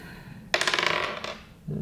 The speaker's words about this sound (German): Wir würfeln direkt los.